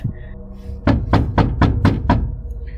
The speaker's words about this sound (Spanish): Fue seguido de otro golpe y otro, alguien casi intentando derribar la puerta.